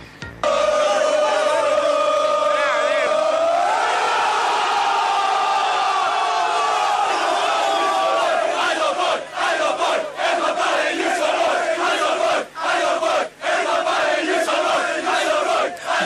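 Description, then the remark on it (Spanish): A large crowd roars and cheers loudly in celebration of a goal, the 2006 recreation of Aldo Pedro Poy's headed goal, a sustained swell of shouting voices that rises and surges, with chant-like rhythmic bursts breaking through in the second half. “Escuchamos el audio y cómo se festeja eh, el gol y la recreación de Aldo Pedro Poy.”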